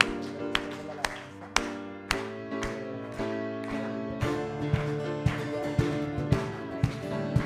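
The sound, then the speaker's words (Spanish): An audience claps hands in a steady beat, sharp claps landing roughly twice a second over sustained, harmonically rich music that carries on beneath them. “Vamos todos con nuestras palmas.”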